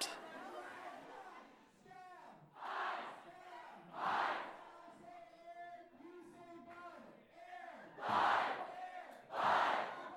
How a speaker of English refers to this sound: And next, iHouse came in, whose team name this year is IHOP, or International House of People Against Acronyms. As they came in, they were chanting the word pancakes.